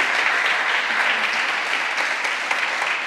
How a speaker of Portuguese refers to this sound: Pode aplaudir a Ele, pode ter certeza.